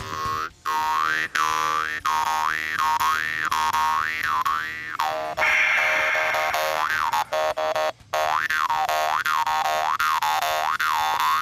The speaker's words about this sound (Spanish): Se viene el solo de. ¿Cómo se llama? Tompe, trompe, la weón. Trompe, weón, trompe.